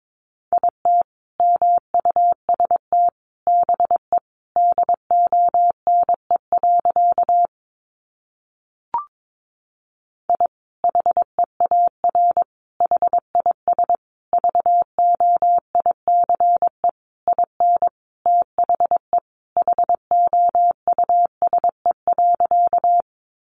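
Morse code practice sent at about 22 words per minute, keying sentences built from the top 500 words: a single steady mid-pitched tone keyed in rapid dots and dashes, with a short pause and click partway through. No voices.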